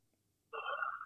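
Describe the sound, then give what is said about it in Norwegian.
A single electronic telephone line tone sounds once as a phone call is taken, lasting about half a second, clear, after a brief near-silence. No one speaks. “Nå, nå, skal vi få bare ta en telefon her,”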